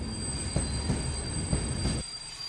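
A train rolls along with a steady, high metallic squeal from its wheels and a few soft clacks, then the heavy rumble drops away abruptly as it comes to a halt at its first stop, the border crossing to Czechoslovakia.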